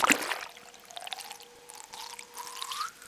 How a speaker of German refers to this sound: Man hört die Klickgeräusche des Schweinswals und wie er zum Atmen an der Wasseroberfläche auftaucht. Es platscht.